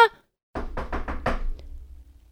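A quick run of about five firm knocks on the wooden front entrance door of a palace, fairly loud, followed by a faint last tap and a low background rumble.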